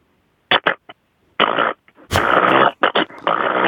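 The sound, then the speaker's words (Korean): A voice mimics a sewing machine: a few quick clicking bursts, then longer buzzing, rattling runs with brief pauses between them, fairly loud. “재봉 아, 재봉틀 좋아서 재봉틀 다시 한번 들려주세요.”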